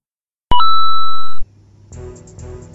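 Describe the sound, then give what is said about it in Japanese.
A short jingle opens with a loud, steady electronic beep tone lasting about a second, then drops into a softer, busier stretch of layered, pitched sound. “MH2G ジングルというものになります。ぜひお聞きください。”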